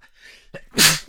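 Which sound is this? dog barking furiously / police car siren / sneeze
sneeze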